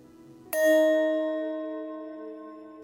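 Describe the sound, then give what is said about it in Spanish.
A single meditation bell is struck once to begin a brief guided mindfulness meditation: a clear bright strike followed by a long, slowly fading ring that sustains for over two seconds with no voices. “Voy a tocar la campana para empezar y para terminar.”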